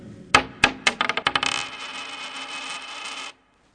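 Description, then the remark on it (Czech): A round, shiny gold coin is thrown down, striking a hard surface with a few ringing bounces that quicken into a rapid chatter, then spins and wobbles with a shimmering metallic ring before falling silent. “Tohle je ďábelský peníz. Tím hůř. Pryč s ním.”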